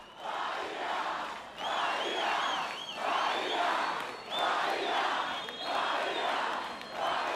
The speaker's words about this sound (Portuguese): Foi ver a galera gritando Bahia, tá ligado? É uma das paradas que eu mais que mais me emociona